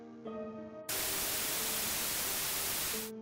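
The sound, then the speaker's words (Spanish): A loud burst of TV video static hisses for about two seconds as a videotape starts playing in a VCR, cutting in abruptly over a steady electronic hum and stopping just as suddenly, leaving the faint hum behind. “Después de una ráfaga de estática, el video comenzó a reproducirse.”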